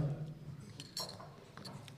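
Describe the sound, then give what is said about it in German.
A few light ceramic clinks as an audience taps Friesian tea cups together with their seat neighbours in a toast, scattered, over a low background murmur. “Ihr stoßt mit eurem Sitznachbarn an, je nachdem.”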